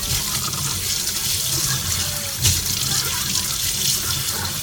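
Dishes being washed under a running tap: a steady, hissing rush of water fills the whole stretch, with one brief clunk partway through and no voices.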